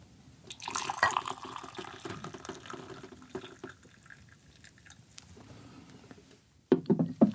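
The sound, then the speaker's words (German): Water is poured into a second glass, a continuous splashing trickle with bright, rising tones as the glass fills, tapering off, then a short burst of clinking at the end. “Und jetzt kommt Glas Nummer 2.”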